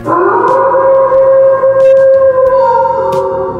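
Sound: wolf howl sound effect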